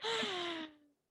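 A single sneeze, sharp and close, with a voiced, breathy burst that fades out quickly, heard on its own with no talking.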